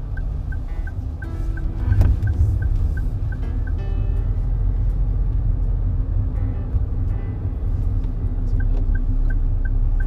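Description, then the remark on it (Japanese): A car driving steadily with a constant low engine rumble and road noise, plus a repeating faint high ticking like a turn signal clicking near the start and end, as the car changes lanes on a road where another lane is under construction. “違う車線が工事してる今車線変更する意味なかったじゃん”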